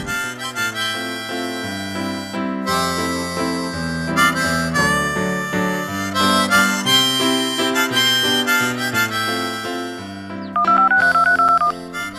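A sequence of bright electronic tones steps along like a phone being dialed, then ends in a loud, rapid warbling ring. Prominent, with no talking.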